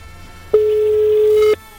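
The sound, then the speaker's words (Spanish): A telephone ringback tone on an outgoing live call: one steady, low-pitched electronic tone lasting about a second, clear and fairly loud over a quiet line hum, then silence. “Está sonando el teléfono. Estamos haciendo un llamado en vivo.”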